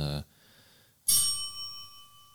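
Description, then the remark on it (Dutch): A small dinner bell, meant for announcing that the food is ready, rings twice: a quick clipped ding, then after a pause a brighter ring that shimmers and slowly fades. “een belletje voor wanneer het eten klaar is.”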